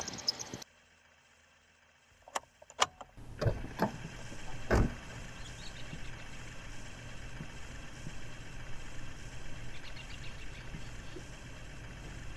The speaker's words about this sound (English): Now I'm afraid of the zoo vans because I genuinely think this thing might rattle apart while I'm driving it down the interstate. Only five more hours to Provincetown.